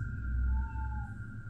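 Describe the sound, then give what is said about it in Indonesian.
A truck with very bright headlights blares its horn on a road in one long, steady, very loud blast over a low engine rumble, holding a flat, nasal tone for the whole moment without breaking. “Tiba-tiba Aku dikagetkan dengan lampu mobil truk Yang begitu terang Dan suara klakson yang begitu keras”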